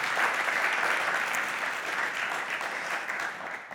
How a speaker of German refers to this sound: Lass uns doch der Band einen Applaus geben.